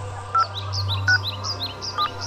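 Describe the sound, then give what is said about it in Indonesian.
Three short, clear mobile phone keypad beeps sound at uneven intervals as keys are pressed on a phone that is switched on but not working, each a brief electronic tone, with faint birds chirping throughout and a steady low hum underneath. “Keyboardnya juga bisa dipencet. Tapi nggak berfungsi.”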